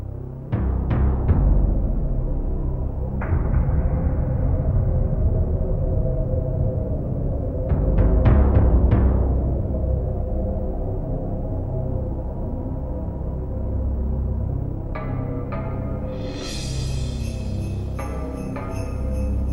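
Brooding instrumental score music from the 1994 film Léon, with a deep sustained low drone, punctuated by sharp clustered percussive hits, and bright shimmering high tones rising in toward the end. No one speaks.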